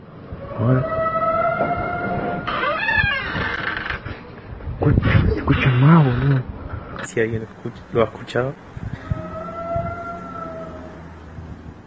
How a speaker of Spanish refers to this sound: el hum Ha hecho acto de presencia en dos ciudades argentinas, Cipolletti y Neuquén. Durante la madrugada los vecinos comenzaron a escuchar un fuerte ruido que describieron como el de una gigantesca trompeta.